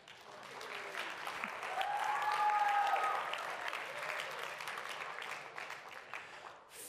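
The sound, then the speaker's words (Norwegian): A crowd breaks into sustained applause, a dense wash of clapping that swells to its loudest around the middle and then holds steady, with a few faint voices and a brief whistle-like tone mixed in. “Jeg syns vi skulle gi dem en skikkelig klapp.”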